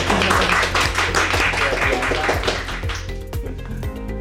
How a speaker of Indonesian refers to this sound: Jadi Saya sedang duduk dengan orang-orang pilihan, boleh tepuk tangan untuk mereka.